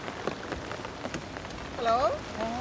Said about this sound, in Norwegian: Ute regner det.